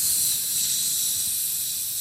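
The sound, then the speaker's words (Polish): A voice imitates a hiss with a steady, sustained breathy hiss through the teeth, lasting about two seconds without a break and fairly loud, with no words spoken. “A ja nie przydam sobie tego, tego sy, syczenia.”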